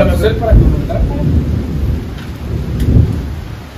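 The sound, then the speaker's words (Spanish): Steady, dense rain hisses without pause, with a couple of deep, booming rumbles swelling underneath, near the start and again toward the end. “Mm, escuchan la lluvia.”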